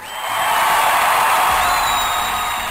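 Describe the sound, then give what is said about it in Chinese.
A crowd bursts into sustained applause and cheering, a dense, steady roar of clapping with high whoops and whistles rising over it, staying loud for the whole stretch before easing slightly at the end. “娱乐圈外圈，爆笑嗨翻天，我是巴罗，掌声响起来。”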